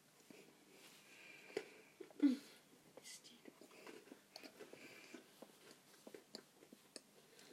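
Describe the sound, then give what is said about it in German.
Crisp crunching from someone biting and chewing a crunchy chocolate snack, chocolatey outside and crispy inside, a sharp bite near the start followed by steady irregular chewing crackles, with soft breathy sounds underneath. “Knusper ganz schön.”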